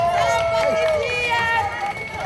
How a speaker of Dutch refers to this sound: Met spandoeken en veel geschreeuw trekken de prostituees door het centrum van Utrecht. Bij het stadhuis stopt de stoet.